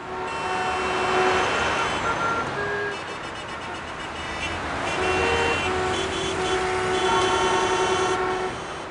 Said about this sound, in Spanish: Rayos, llegaré tarde a mi trabajo. ¿Por qué hay tanto tráfico?